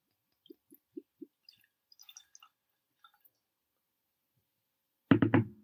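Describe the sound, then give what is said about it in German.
Connemara peated single malt Irish whisky glugs out of a bottle into a glass in four quick, low gurgles, followed by a scatter of faint drips and small clinks, then a loud voice cuts in at the end. “Uiui, habe ich vielleicht ein bisschen doppelt viel reingegossen bei dir, wa?”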